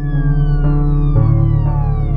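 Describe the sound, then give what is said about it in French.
A loud ambulance siren wails steadily on its own, its drawn-out tone gliding slowly downward in pitch over a couple of seconds, with no one talking, as the ambulance carries a wounded man toward the hospital in Vallejo. “David Faraday est vivant quand les secours l'embarquent dans une ambulance.”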